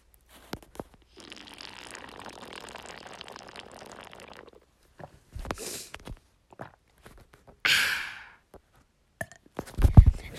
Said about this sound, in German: Kurzes ASMR, wie ich aus einer Air-Up-Flasche trinke.